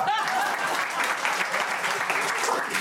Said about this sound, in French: on essaye de rigoler et d'applaudir en même temps